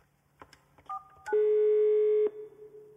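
A telephone is dialed to call the child protection service in the Netherlands: a few sharp clicks and a brief electronic beep, then a steady, loud tone holds for about a second before cutting off. No one speaks.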